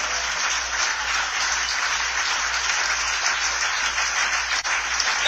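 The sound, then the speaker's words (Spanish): Sustained applause for the Lord during a Christian sermon, a dense, steady wash of many hands clapping at once with no break, loud, with no one talking over it. “Dele fuerte ese aplauso si es para el Señor.”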